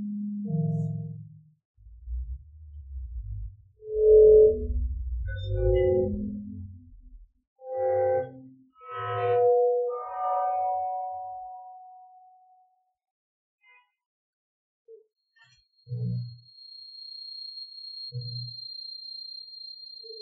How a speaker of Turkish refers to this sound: Şimdi Ece Ayhan hani bu osilatör e, denilen aletle kendisi bir şey denemiş.